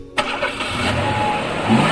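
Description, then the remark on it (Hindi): A car engine cranks and catches after a brief quiet moment, then settles into a steady, low rumbling idle that continues loudly to the end, with no voices. “अब और पिता ने गाड़ी चलानी शुरू करी”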